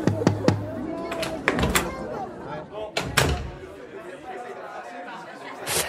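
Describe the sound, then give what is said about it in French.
A door to backstage dressing rooms clunks open with a few sharp knocks and latch clicks, then a lively room of many voices chattering fills the background: musicians, singers, and orchestra and choir staff gathered around a buffet. “Ah ben voilà, c'est derrière la porte, là, on y est.”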